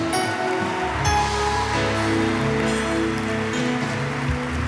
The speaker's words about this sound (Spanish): Nos aplauden al Señor.